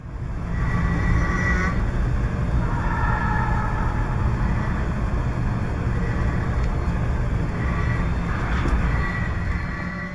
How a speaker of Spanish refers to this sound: está roncando el tren, que es ese sonido que escuchamos muy metálico